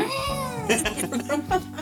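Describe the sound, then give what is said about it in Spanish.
A cat meows in a long, drawn-out wail, followed by a few shorter rising meows in quick succession, fairly loud. “Estos gatos lo hacen como Una máquina.”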